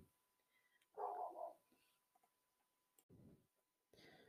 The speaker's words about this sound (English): And I'm sorry for any dog noises in the back. Um, yeah, sorry.